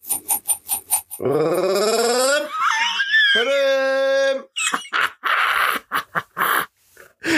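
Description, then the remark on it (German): A voice imitates a drum roll with a sustained, rolling vocal buzz that rises in pitch and then holds for about three seconds, followed by choppy bursts of laughter. “Und du wolltest Trommelwirbel machen.”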